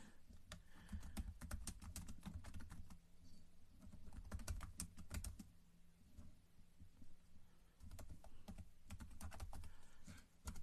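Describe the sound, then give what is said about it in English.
Rapid clusters of computer keyboard clicks tapping away in uneven bursts with short pauses, over a low steady hum with no voices, as someone types up their YouTube live. “Sorry, I'm typing up my YouTube live real quick, y'all.”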